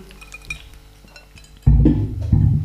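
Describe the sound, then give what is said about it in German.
Glasses clink lightly together in a brief toast, a faint ringing tap, followed by louder low thumps and rustling. No one speaks. “Wollen wir Prost, erstmal prosten?”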